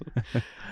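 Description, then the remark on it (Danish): Two quick, dull thumps a fraction of a second apart as a door swings open and shut while people come in and out, in Norway, followed by a faint background hum. “Vi kom lidt ind på, øh, på det her med, at, at det, øh, det I kan høre i baggrunden, når vi sidder i Norge, det er, når folk de kommer ind og ud af, af døren.”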